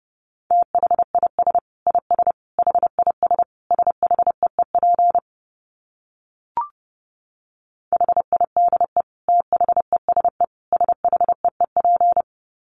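Fast Morse code in a steady mid-pitched tone, sent at about 30 words per minute as rapid keyed bursts in two runs split by a brief pause and a single click, with no voices.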